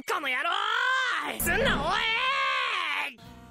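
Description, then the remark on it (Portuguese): A single voice of an anime character lets out a loud, drawn-out scream lasting about three seconds, its pitch rising and wavering with a brief ragged break midway before cutting off abruptly. “coloca cada um gritando aí”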